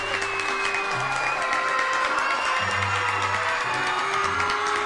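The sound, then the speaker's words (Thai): A dense crowd of forest animals claps steadily while scattered cheers and shouts rise through it, celebrating the treeshrew's race win over the rabbit, a loud continuous wash of applause with no clear pauses. “บรรดาสัตว์ป่าต่างปรบมือพร้อมกับส่งเสียงชัยโยแสดงความดีใจกับกระแตที่สามารถเอาชนะกระต่ายได้สำเร็จ”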